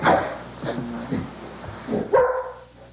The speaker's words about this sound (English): Which, of course, makes Roy bark again. No, Roy. No. Can you blame him?